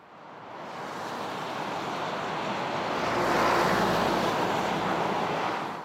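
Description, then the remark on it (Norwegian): A steady rushing roar of cars and buses on the E18 motorway, swelling louder in the middle as vehicles pass, then easing slightly; no voices. “Biler og busser suser nedover E18.”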